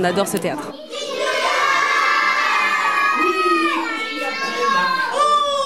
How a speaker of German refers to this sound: Die Kinder rufen fröhlich den Kasper.